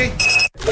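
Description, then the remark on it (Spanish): A Verisure home security alarm being armed before closing the door and leaving: one steady, high-pitched electronic beep lasting about a third of a second, fairly loud, followed by a brief silence and some faint background sound. “Amor, activa la alarma, cierra la puerta y vamos, que se hace tarde.”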